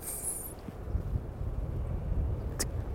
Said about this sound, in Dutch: Dat is het Ja, dat is zanglijster en de... is koperwiek.